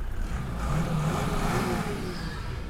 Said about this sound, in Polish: Natomiast e, teraz jedziemy, nie wiem czy rozpoznajecie, ale dźwięk silnika jest inny.